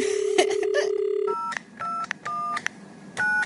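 Telephone keypad dialing tones as a phone number is dialed after the handset is picked up: a steady dial tone cuts off, then four short two-pitch beeps sound one after another at an uneven pace, each with a faint click, over a quiet line hiss.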